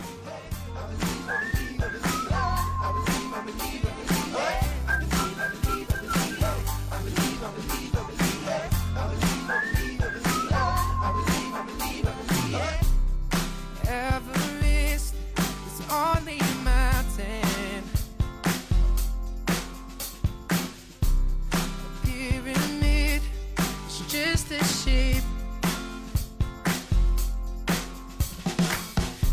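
A bright whistled melody leads a pop song intro over a steady full-band beat with bass and drums, loud and close, with no singing or talking.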